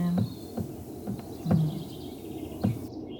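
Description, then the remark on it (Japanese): Outdoor morning ambience at a campsite around 7:30 a.m. under a cloudless blue sky, with a series of short bird calls at irregular intervals, fairly soft, over a quiet background hiss. “今朝の7時半ですけれども6時ごろもっと賑やかな鳥の声で今朝は目覚めました雲一つない青空が広がってますけれどもどのテントもまだとても静かです”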